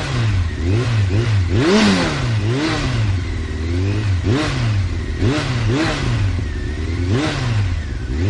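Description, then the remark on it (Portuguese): A motorcycle engine revs up and down repeatedly in rising and falling surges, loud, with a clattering, echoing quality as the rider circles inside a globe of death, a metal sphere, gaining momentum to make a full loop before an audience. “Ele começou a dar umas voltas pelo globo até pegar embalo para dar a volta completa.”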